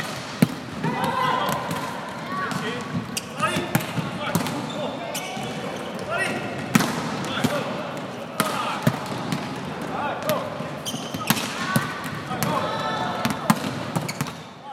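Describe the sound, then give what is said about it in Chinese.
The Chung Cheng University women's volleyball team practising in the university gymnasium: frequent sharp, loud smacks of balls being hit and bouncing, arriving in an irregular rhythm over a steady wash of indistinct voices and shouts. “那照惯例，照上一季的惯例，我们访问球队就是给大家听听看他们练球的声音。”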